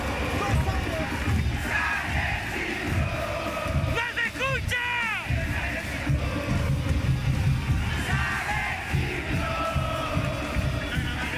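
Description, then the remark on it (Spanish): A big, festive crowd of football fans outside the Estadio Nacional at a capital-city derby roars, shouts and chants nonstop outdoors, with a brief warbling whistle cutting through the din partway through. “Como pudimos escuchar el ambiente en las afueras del Estadio Nacional, era de fiesta por volver a disfrutar de un clásico capitalino”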